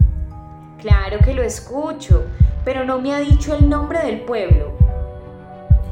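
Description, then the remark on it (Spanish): A heavy, steady heartbeat thumps in paired beats, lub-dub, repeating about once a second, loud and low beneath a man talking over it. “Ese es el sonido de su corazón.”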